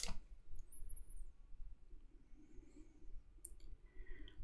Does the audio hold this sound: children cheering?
no